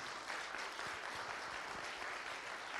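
A crowd claps in a steady, dense round of applause for residents of the Hope is Alive homes in Tulsa, many hands overlapping into a continuous bright wash of sound with no talking.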